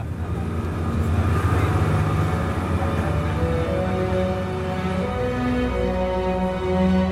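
A steady, loud engine drone with a deep rumbling hum and harmonic whine from a motorboat heading past the steep cliffs of St Kilda out onto the open Atlantic in calm wind and sea, holding constant throughout without pauses.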